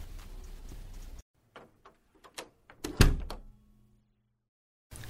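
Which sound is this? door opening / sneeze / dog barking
door opening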